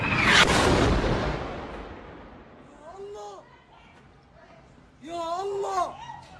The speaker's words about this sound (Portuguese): No caso deste hospital sobra um único facto, esse é o único que sabemos e ouçamos agora, que é no fundo a explosão, e deixamos com esse infeliz som desse momento.